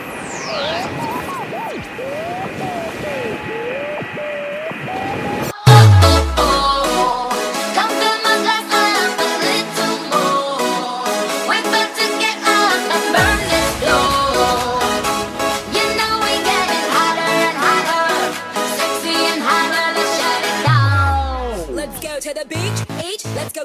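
A loud electronic dance bootleg remix of a pop track opens with a whooshing riser. Then a bass drop hits and a dense, driving beat carries sung vocals and bright synths, with another drop near the end.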